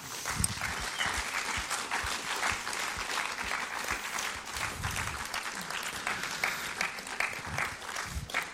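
Steady audience applause for a family invited onto the stage, a dense wash of many hands clapping at an even, fairly loud level throughout, with no voices standing out above it.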